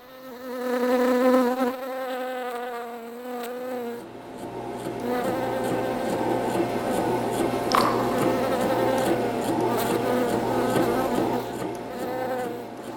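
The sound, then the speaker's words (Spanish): A dense swarm of bees buzzes steadily in a hive, starting with one louder droning wingbeat and then spreading into a thick, layered hum of many insects, continuous throughout. “Un día, las abejas se reunieron en el panal para discutir por qué siempre trabajaban tan apretujadas”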